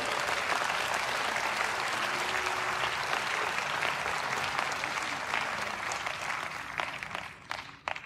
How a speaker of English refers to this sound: I want to introduce some very special people to you. I know you don't know who you're clapping for, but clap for this couple.